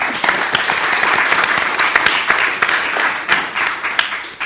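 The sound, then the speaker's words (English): An audience applauds a panel after it is introduced, many hands clapping in a dense, continuous patter that stays loud and even throughout, with no one speaking over it. “I'm going to clap.”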